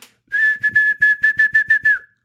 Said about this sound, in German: Ja, pfeift so in den Applaus rein.